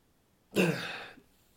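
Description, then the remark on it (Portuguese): A single breathy sniff lasting under a second as someone builds toward a sneeze that never comes, followed by quiet. “Não veio de novo. Se eu avisar, eu não espirro.”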